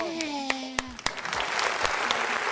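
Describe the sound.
Applause swells from a few sharp claps into a dense, steady wash of clapping, with a brief voice-like tone fading out near the start.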